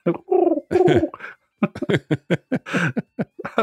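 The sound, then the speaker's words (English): A human voice imitates a pigeon's cooing, with a few throaty warbling coos followed by a quick run of short, choppy vocal bursts like stifled chuckles. “You're very British pigeon.”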